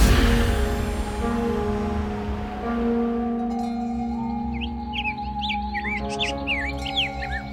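A zebra dove sings in a tree blown by a gentle breeze: a run of short, bright, rising chirps in the second half, clear, over a steady low humming backdrop.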